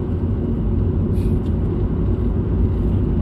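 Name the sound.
car interior road noise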